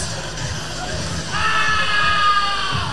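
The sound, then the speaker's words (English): A wrestler in the ring, having just won the match, lets out a loud, sustained scream partway through, rising over the steady roar of an arena crowd that keeps cheering and shouting underneath. “Scream it out”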